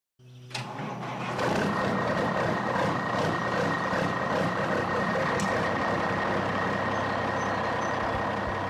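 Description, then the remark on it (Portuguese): A heavy truck engine in the driving game Euro Truck Simulator roars in abruptly and keeps rumbling loudly and steadily, with a faint high tone running through it and a brief sharp knock midway as the truck crashes; no one speaks. “bateu o caminhão aí, foi, né? Ia falar do, do Eurotruck Simulator.”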